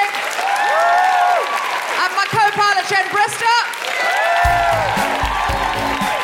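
A loud, sustained burst of audience applause, with enthusiastic whoops and cheers rising over the clapping, and a low musical tone coming in toward the end.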